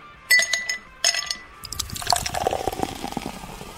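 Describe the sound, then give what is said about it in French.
A couple of sharp glassy clinks ring out, then a cocktail streams steadily into a glass for a couple of seconds, moderately loud, with no voices, at the La Seine beach bar. “Vous avez demandé un cocktail Installez-vous, je me un plaisir de vous le préparer.”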